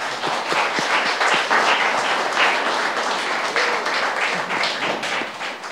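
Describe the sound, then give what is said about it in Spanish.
A crowd applauds participants at a prize-giving event, a dense wash of many hands clapping at once, sustained and fairly loud for several seconds with no clear pauses. “Un aplauso para ustedes también.”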